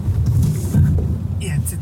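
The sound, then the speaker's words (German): A car brakes hard with its anti-lock braking system (ABS) engaging: a dense juddering low growl lasting about two seconds, with a brief high squeal near the end. “Nach dem dritten Mal ist das erste Mal das ABS, Antiblockiersystem, angesprungen.”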